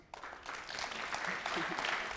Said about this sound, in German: kriegst jetzt Applaus bei jeder Frage.